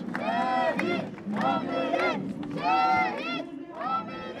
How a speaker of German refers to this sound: Männer, Frauen und Kinder liegen sich in den Armen, weinen, rufen, die Gefallenen sind unsterblich.